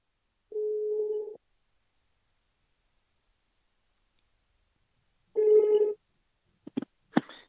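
A telephone ringback tone from a call placed to a guest on Funen (Fyn), Denmark, sounds twice, each a steady low-pitched buzz with a long silent gap between, followed by a few sharp clicks as the line is picked up.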